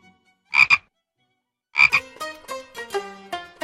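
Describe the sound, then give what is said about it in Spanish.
An American bullfrog croaks: two short, rough bursts separated by a pause, then a quick run of deeper, resonant croaking calls. No voices are heard. “Lo que ocurre es que la rana toro es portadora del hongo Batrachochitrium dendrobatidis.”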